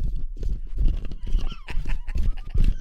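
A stampede of galloping horses, hooves pounding in a dense, rapid rhythm, with a brief whinny rising over the thundering clatter partway through.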